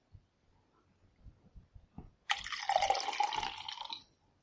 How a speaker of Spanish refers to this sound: como estoy tomando un café. No, agua.